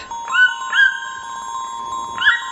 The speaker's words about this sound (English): It's a toucan.